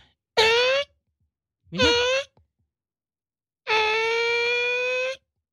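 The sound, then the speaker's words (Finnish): A voice mimics a cordless screwdriver, a much-used construction tool, with three loud bursts of steady, buzzy whining: two short ones close together, then a longer sustained whir after a pause. “Akkukäyttöinen ruuviväännin olisi ollut oikea vastaus.”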